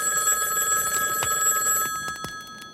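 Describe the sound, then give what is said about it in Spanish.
A telephone bell rings in a steady, continuous trill, then stops abruptly, leaving a few faint clicks and quiet room noise. “Suba usted y conteste al teléfono, que me acuerdo muy bien dónde está la puerta.”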